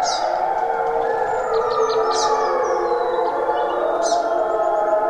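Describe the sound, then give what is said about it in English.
Two wolf packs, one in front of and one behind the recordist, howl at one another at dawn, recorded with two microphones; overlapping, sustained wavering tones blend into a steady chorus for the whole stretch, with brief high chirps flickering above. “And I had a pack of wolves in front of me and a pack of wolves in back of me, and was completely surrounded with these two groups just yowling at one another in the dawn light.”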